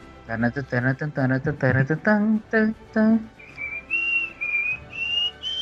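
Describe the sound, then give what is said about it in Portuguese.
A person talks briefly, then whistles the theme of The X-Files, a slow melody of several sustained, gliding notes, clear, lasting a couple of seconds. “Começou a assobiar o tema do Arquivo X.”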